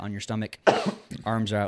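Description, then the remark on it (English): A single sharp, raspy cough bursts out between stretches of speech, brief and fairly loud, with a person talking on either side of it. “No, coughing while I'm podcasting here.”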